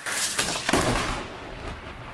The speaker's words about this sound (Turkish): Balıkesir'in komşusu Bursa'da da yağışlar kuvvetliydi. Gök gürültülü sağanak yağmurun getirdiği yıldırımın düşme anı amatör kameralarla kayıt altına alındı.